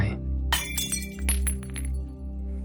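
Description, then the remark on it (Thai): A water jug drops and shatters, giving a few sharp, crashing bursts in quick succession with bright ringing shards, over a steady low hum and no talking. “เขายกตัวอย่างเหยือกน้ำใบหนึ่ง หากเราชื่นชอบและผูกพันกับมัน เราควรเข้าใจธรรมชาติของเหยือกน้ำด้วยว่า มันสามารถแตกได้ วันหนึ่งมันอาจจะตกแตกหรือมีคนทำมันแตกทั้งโดยตั้งใจหรือไม่ได้ตั้งใจ”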